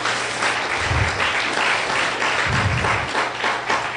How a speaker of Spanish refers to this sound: Denle un fuerte aplauso al Señor Jesús.